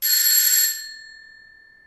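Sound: doorbell ringing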